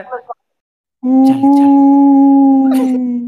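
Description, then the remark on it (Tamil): A person imitates a howling fox, with a brief vocal sound, then after a pause one long, steady, drawn-out howl held loud for over two seconds. “ஏதோ ஒரு சத்தம் நரி நரி நினைச்சார் போல பேய் நரி நரி பேய் நரி பேய்”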